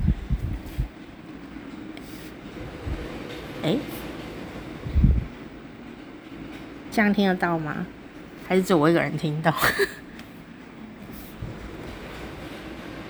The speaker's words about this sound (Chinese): 就是有一个风的声音。好了，我干嘛硬要给你们听风的声音？我看看哦。啊，因为这个建筑体的关系，有时候风进来的时候，声音就非常的巨大。